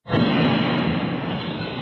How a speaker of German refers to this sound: Um 15.18 Uhr, 25 Minuten nach seiner Verhaftung, explodiert die Bombe und reißt ein Loch in seine Brust.